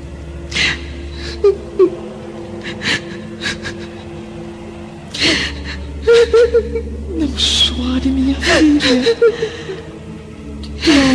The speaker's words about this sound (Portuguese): No entanto, Lívia, ao passar pela porta do aposento da filha, percebe a pobre jovem chorando, sozinha em seu leito, abandonada novamente pelo marido adúltero.